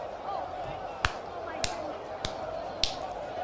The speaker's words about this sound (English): Golf. Yeah, apparently. Golf clap.